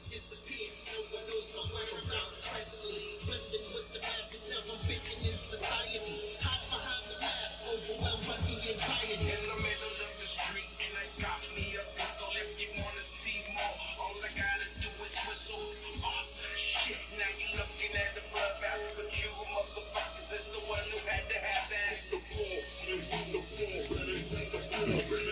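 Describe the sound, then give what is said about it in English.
A song's hook plays from a recording, a dense full-band mix with a steady, punchy beat, loud and continuous for about twenty-five seconds with no talking over it. “this is the hook.”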